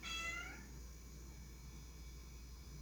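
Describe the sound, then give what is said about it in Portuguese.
One of two cats gives one short, fairly quiet meow at the start at feeding time, as they are given a food pouch, then falls silent, leaving only a steady low hum and faint background noise for the rest of the moment. “Esse aqui é um podcast experimental feito pelos meus dois gatos, que já estão ao fundo.”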